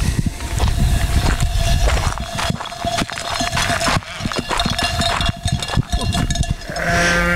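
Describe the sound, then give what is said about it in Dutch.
A grazing sheep flock's bells clank and jingle continuously, many overlapping at once in a dense, irregular chorus, fairly loud, with faint animal sounds mixed in. “We horen de bellen en we lopen nu door het bos op goed geluk te zoeken.”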